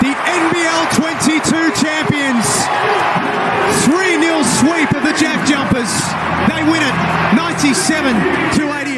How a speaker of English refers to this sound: That is the sound of the biggest ever grand final crowd in ANBL history. Courtesy of ESPN, 16,149 was the official number. That was them erupting at Kudos Bank Arena to celebrate the new champions of Aussie basketball, the Sydney Kings